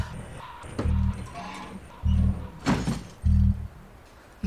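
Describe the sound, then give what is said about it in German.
A door opening, marked by several heavy low thumps and short mechanical rumbles spread over a few seconds, with a faint background hum and no voices. “Wir müssen zu der Tür da drüben, siehst du?”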